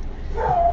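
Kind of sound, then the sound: animal, dogs barking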